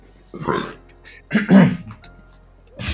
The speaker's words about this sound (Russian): Бля, я сейчас реально рыгнул.